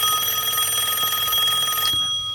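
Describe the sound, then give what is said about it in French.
A telephone bell rings loudly with a rapid, metallic trill, signalling a viewer's question sent via New Jardin TV, sounding continuously for about two seconds before cutting off abruptly. No one speaks over it. “Le, la sonnerie, c'est pour Faouzia qui a posé une question sur New Jardin TV”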